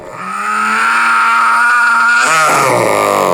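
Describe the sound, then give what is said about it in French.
A monstrously powerful, angry howl swells in and holds loud and steady for about three seconds, then breaks and shifts to a rougher, lower growl near the end. No talking. “un petit garçon qui ne pouvait pas s'endormir parce que tous les soirs, il entendait un hurlement de colère monstrueusement puissant.”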